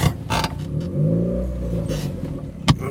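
A car with a broken, unrepaired exhaust rumbles and revs loudly, its low, rough drone rising and falling with a ragged, blatting edge, broken by a few sharp clunks.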